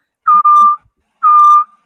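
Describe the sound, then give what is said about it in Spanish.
A person whistles two loud, steady notes, the first with a brief break in it and the second a little longer after a short pause, with no talking. “Eh, que de hecho tú comenzaste a hacer un como un ruido como a, silbar o algo como a pie.”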